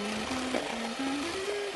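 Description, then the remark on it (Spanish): An electric mixer whirs steadily, beating egg yolks with sugar into a smooth, pale yellow mixture, with a continuous motor drone whose pitch creeps slightly upward, with no voices over it. “Las yemas las vamos a batir con el azúcar hasta que nos quede una mezcla homogénea de un amarillo pálido”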